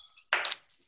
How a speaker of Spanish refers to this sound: Vamos a abrir una cerveza ya que estamos, ¿no? Mientras esperamos.